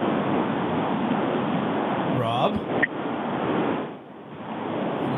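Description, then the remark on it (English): Steady, loud roaring wind rush like a car driving with its windows down, heard through a band-limited phone line, with a brief voice cutting in partway. “It sounds like Robert's like driving down the 401 with his windows rolled mm. down.”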